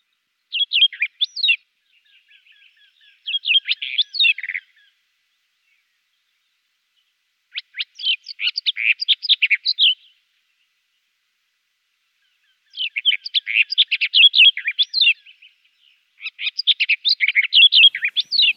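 A barred warbler sings bright, dry phrases in four separate bursts of rapid, harsh chirps and trills, clear against an otherwise silent background, with pauses of a few seconds between bursts.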